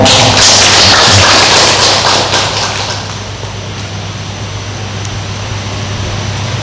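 A round of applause: dense, crackling clapping from many hands, loud at first and then gradually thinning out and fading over the last few seconds, with no talking.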